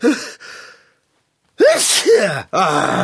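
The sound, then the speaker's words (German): A single loud sneeze from a sudden cold bursts out after a brief pause, with a voiced drawn-in buildup and a sharp explosive release, preceded by soft breathy laughter. “Gesundheit.”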